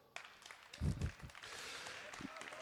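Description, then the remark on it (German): An audience at a show breaks into applause after a round of scoring, sending off people who are leaving: a few low thumps first and then a steady, dense wash of clapping that carries on at an even, moderate level. “Wir verabschieden uns mit einem Applaus.”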